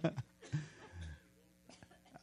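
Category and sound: human body sound, coughing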